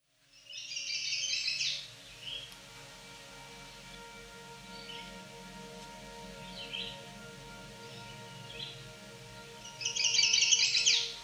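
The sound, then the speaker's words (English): A chestnut-sided warbler, a small songbird, sings two bright, rapid bursts of high warbling notes, one near the start and one at the end, with a few faint chirps and soft background noise between. “The chestnut sided warbler is a small, energetic songbird that can be found in succession habitat, open areas where field is becoming forest.”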